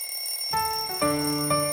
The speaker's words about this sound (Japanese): 元彼の目覚ましが夫を叩き起こし続ける。